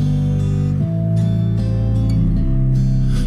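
A melancholic pop song plays at steady, fairly loud volume, with sustained warm chords shifting every second or so and soft high shimmer above, no talking over it.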